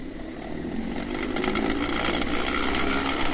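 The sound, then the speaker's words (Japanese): A continuous loud rattling rumble of a ride down a 211-metre roller slide at Kabokuen park in Ome city, Tokyo, surrounded by greenery, a dense whirring clatter of spinning rollers that holds steady and grows slightly stronger, with no voices. “ローラー滑り台を滑る音”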